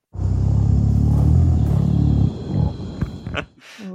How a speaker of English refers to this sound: gorillas sing and they hum when they're eating. Uh, if oh. you talk to a zookeeper, they'll probably be very familiar with this, but um, actually, gorillas also do it in the wild. So here's a clip of a gorilla humming.